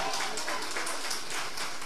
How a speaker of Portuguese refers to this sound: Aplauda esse Deus que te ama.